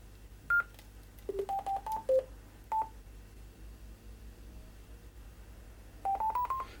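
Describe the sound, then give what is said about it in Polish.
A string of short DTMF tones from a microphone keypad beeps in quick, uneven bursts, followed after a pause by a brief rising three-tone sequence signalling connection to a room in the Wireless-X system. No one speaks, and a low hum runs underneath. “ponieważ ja już byłem połączony z systemem Wireless X, ten dźwięk trójtonowy sygnalizujący połączenie do konkretnego roomu był o dużo wyższej częstotliwości.”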